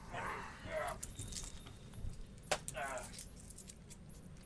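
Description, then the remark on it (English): Coins jingle into a pocket in two short metallic bursts, separated by a sharp clack. The sound is moderately loud, with no talking. “put the coins in my pocket.”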